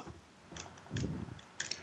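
typewriter typing

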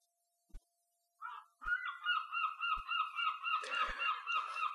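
geese honking

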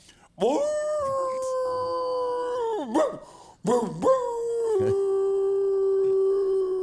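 howling like a wolf

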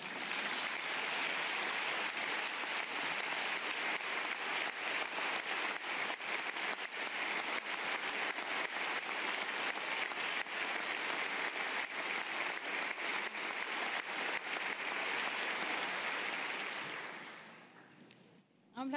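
standing ovation applause

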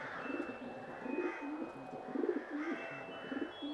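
dove cooing

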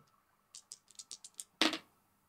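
dice being rolled

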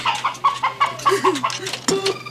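chicken clucking

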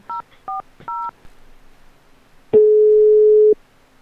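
busy tone

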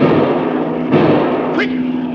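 gunshot fired

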